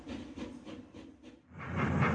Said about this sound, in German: Soeben ist der Zug angefahren. Meine Reise nach Sofia hat also begonnen.